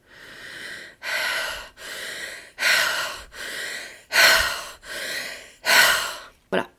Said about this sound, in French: Et donc cette respiration-là, elle est utilisée pour se libérer.